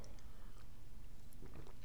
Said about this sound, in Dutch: Even een slokje water.